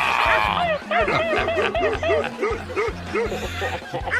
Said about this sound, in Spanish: Sí, ¿cómo ladra tu perro, criatura? Ah, qué feo ladra tu perro. Escucha el mío, escucha el mío, ahí va. Eso, quieto, Nerón, quieto.